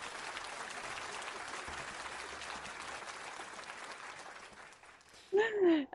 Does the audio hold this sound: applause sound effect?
yes